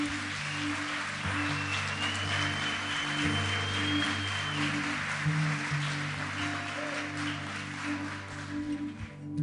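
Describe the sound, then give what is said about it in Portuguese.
A large crowd claps loudly and continuously for the Super Kids team, a dense rain-like wash of applause lasting several seconds, with sustained keyboard chords humming softly underneath. “Não, mas aplauda forte, por favor.”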